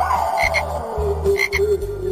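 A chorus of frogs croaking in steady, rhythmic pulses, fairly loud, with a thin whistling tone drifting over the low throaty calls throughout.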